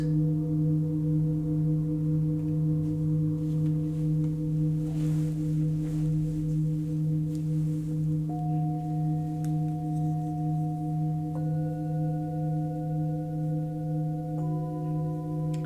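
Singing bowls ring in long, steady sustained tones, a low hum layered with higher pure pitches; new bowls enter partway through, adding bright overtones that shimmer and linger without fading.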